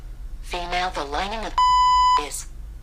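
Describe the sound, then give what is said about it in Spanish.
A voice speaks, then a translation app's loud, steady censor bleep tone cuts in for about half a second, masking an offensive word, before speech briefly resumes. “Aquí podemos ver una de las características cuando él cuando va a traducir una palabra que él considera malsonante, simplemente te pone un bip.”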